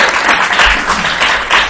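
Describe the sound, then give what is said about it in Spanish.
An audience at Casa de América in Madrid applauds during a broadcast of the program Exiliados, a dense, crackling wash of many hands clapping at once, loud and sustained throughout with slight swells in intensity. “Unos aplausos súper espontáneos.”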